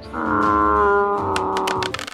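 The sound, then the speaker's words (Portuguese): A person gives a loud, drawn-out guttural scream, imitating the horrendous roar of a large fallen orc, sustained for about two seconds before breaking off into a rough, crackling tail. “O orc grande que tá ali caído, mais uma vez dá um grito horrendo, no qual faz tremer a espinha de vocês, o pelo de vocês arrepia”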